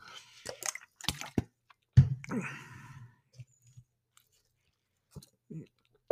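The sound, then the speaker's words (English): Wet mouth sounds of someone sipping Starbucks coffee and water: a few short slurps and lip clicks, a louder gulp with a breathy exhale, then quiet pauses and a couple of faint swallows. “Excuse me, I'm, I'm drinking Starbucks and uh, water at the same time.”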